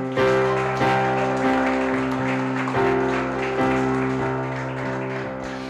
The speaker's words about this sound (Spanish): ¿Qué tal si se da un aplauso?